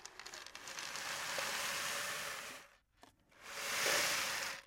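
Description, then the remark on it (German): A homemade rain stick is tipped twice, its dense pattering rush of grains swelling and fading like rainfall, with a brief pause between the two steady pours. “Und man kann auch einen, ähm, ja, so einen kleinen äh, Rainmaker, Regenmacher machen. Hört mal.”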